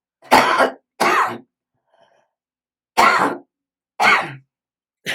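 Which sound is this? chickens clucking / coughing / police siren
coughing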